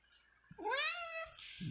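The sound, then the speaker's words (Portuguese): A single drawn-out cat meow, rising then falling in pitch, fairly clear, lasting under a second, with faint background noise before and after. “Ó, meu gatinho falou.”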